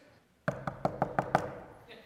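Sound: knocking on a door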